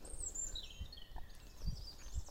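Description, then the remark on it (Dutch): Several small birds chirp and twitter continuously, high thin calls layered over a soft outdoor background with faint low rumbles. “Als je goed luistert, en misschien hoef je helemaal niet goed te luisteren, hoor je al die vogeltjes op de achtergrond.”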